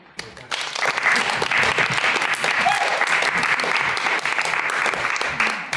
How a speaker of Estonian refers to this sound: no ma loodan, et see aplaus kõlas eelkõneleja aadressil, sest kui see kõlas minu aadressil, nii palju kui mina teatrimaailma tunnen, jääb mul üle kummarduda ja lahkuda